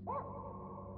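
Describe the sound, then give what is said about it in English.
A single sharp, high yap from a small dog rings out near the start, fairly loud, then trails into a steady, humming tone with no further barks, in the middle of the night. “And yet I can hear this yapping, this constant, never ending yapping.”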